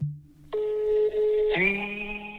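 signal or alarm, telephone call dialing tones

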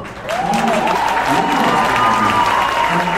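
crowd, standing ovation

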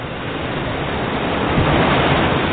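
nature, surf waves breaking

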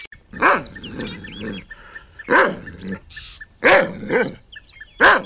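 animal, big dog barking

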